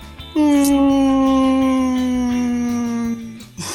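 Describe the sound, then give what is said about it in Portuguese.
A voice imitates a whale call with one long, loud droning note, held for about three seconds and sliding slowly lower in pitch before cutting off. “Cara, é, essa imitação de baleia parece mais a preguiça que você fez no outro episódio.”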